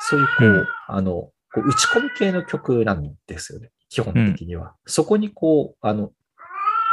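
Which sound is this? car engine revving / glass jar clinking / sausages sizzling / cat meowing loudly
cat meowing loudly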